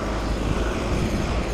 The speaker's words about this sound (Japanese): ちょっと工事しててうるさくてすいません